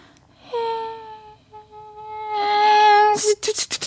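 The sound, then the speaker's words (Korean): A voice mimics fireworks: a long, steady whistling tone that swells, then a rapid string of about four sharp, loud popping bursts, with no other sounds around it. “폭죽 소리 들려줘요라고.”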